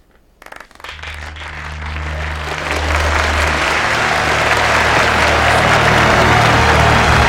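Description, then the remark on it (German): Applause from an audience starts with a few scattered claps, then swells within a couple of seconds into loud, dense, sustained clapping that continues steadily to the end. “Es war ihm gar nicht recht, gewesen, weil Leute ihm haben angefangen zu klatschen.”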